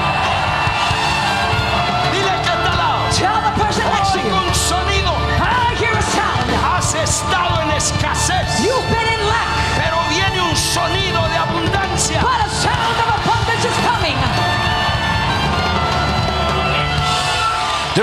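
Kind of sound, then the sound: crowd, audience shouting and cheering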